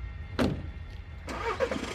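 A small old VW car engine cranks at dusk with a short burst, pauses, then turns over and catches into a rough, steady rumble. It sounds fairly loud, with no voices.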